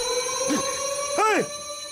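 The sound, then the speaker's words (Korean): A fire alarm in a small, newly built residential villa sounds steadily on a hot summer night, a continuous electronic tone with two quick rising-and-falling swoops over it, at moderate loudness with no talking. “이게 뭔 소리냐? 화재 경보 소리 아니냐?”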